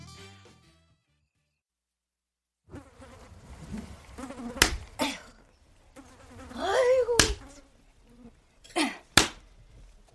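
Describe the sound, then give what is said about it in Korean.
Houseflies that have got inside a house buzz in a wavering, rising-and-falling drone that comes and goes after a brief silence, punctuated by several sharp slaps or thumps. “아유, 이놈의 파리들이 언제 이리 들어왔어?”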